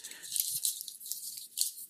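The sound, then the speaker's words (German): Crunching and chewing as someone puts a whole liquid-filled chocolate praline, filled with rum, into the mouth and bites it, a steady run of crisp, wet crackles over about two seconds with no talking. “Also ich tue die jetzt ganz rein, weil das ist ja flüssig drin.”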